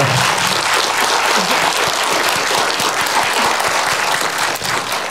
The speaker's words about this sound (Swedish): Jag tycker vi ger dem en stor applåd.